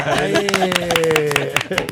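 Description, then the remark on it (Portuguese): A short round of applause: quick, uneven hand claps fill two seconds while a voice holds a steady, sustained note underneath. “Salva de palmas.”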